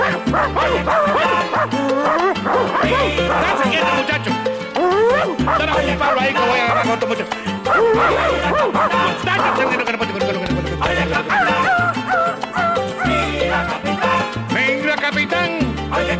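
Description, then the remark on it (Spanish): A stray dog barks and yips repeatedly in loud, excited bursts over a driving music bed, with a man's voice calling out briefly. “Perro callejero.”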